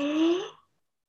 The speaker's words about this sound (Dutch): En dan laat je je kaak zakken. En dan kan je ook bijna daar een klikje voelen. Dat je kaak open gaat. En mhm. die laat je zakken. En op het moment dat je hem laat zakken, adem je in. Alsof je gaapt.